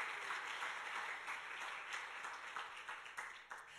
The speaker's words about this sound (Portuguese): Aplauda o Senhor nessa noite, aplauda a Sua palavra.